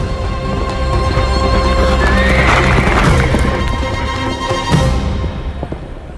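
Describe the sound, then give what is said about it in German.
A horse gives a loud whinny as its rider mounts, then hooves clatter in a fast gallop as the rider rides away, carrying on steadily and growing slightly duller toward the end, with no talking. “Die Menge staunte, als der Reiter die Treppe hinunterging auf sein Pferd stieg und davon galoppierte.”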